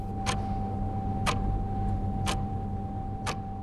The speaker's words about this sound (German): Aber ich habe mir Mühe gegeben, möglichst nervige und möglichst alltägliche Störgeräusche aufzuzeichnen, um damit das Audiostück so ein bisschen zu spicken. Hier hören wir zum Beispiel eine Uhr.